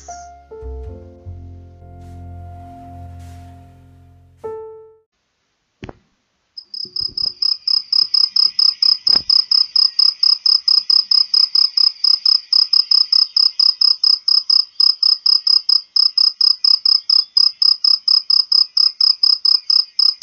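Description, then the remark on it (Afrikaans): A played sound effect: crickets chirp in a steady, rapid pulsing rhythm, loud, after a brief low musical tone and a couple of sharp clicks at the start. No one speaks. “Wanneer jy iets skep en jy sit dit daar buite en al wat jy terugkry is the sound of crickets.”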